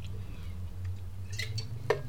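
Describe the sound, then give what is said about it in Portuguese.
Someone drinks water from a glass: a few faint clinks and small handling sounds, then one sharper tap of glass, over a steady low hum with no talking. “sempre que ouvirem uma pausa, eu sou eu beber água.”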